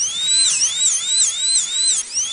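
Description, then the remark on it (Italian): A high-pitched dentist's drill whines continuously, its pitch rising and falling in a steady wavering cycle about twice a second, loud with no voices, from the dentist in the neighbouring building. “Sì, scusate, scusate, ma c'è stata un'interferenza con l'impianto di filo diffusione del dentista del palazzo accanto.”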